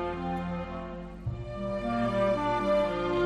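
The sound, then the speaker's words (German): Gentle, flowing, light and delicate string music with sustained, layered notes swelling softly, an elegant and romantic string theme playing steadily at a moderate level with no voices. “Würdest du dich mal interessieren für ein Delicate Flowing Romantic Light Elegant String Theme?”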